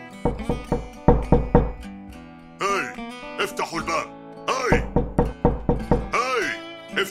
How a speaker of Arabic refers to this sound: افتحوا الباب أنت من في الداخل افتحوا الباب من هذا الذي يطرق الباب في هذا الوقت؟ من خلف الباب؟ أنا مبعوث رسمي من الحكومة